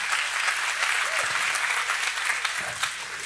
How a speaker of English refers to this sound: Look at that gorgeous, powerful woman. Give her a big old clap.